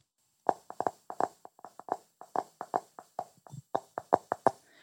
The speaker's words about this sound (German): Too many taps, taps, taps, taps, taps, taps.